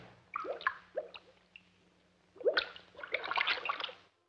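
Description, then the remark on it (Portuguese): Water dripping from a leaky Deca faucet: a few separate plinking drops at first, then a quicker, busier run of drips and small splashes over a faint low hum. “Por isso, se a sua torneira Deca estiver vazando, é porque você simplesmente esqueceu de fechar.”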